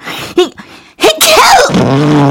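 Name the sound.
sneeze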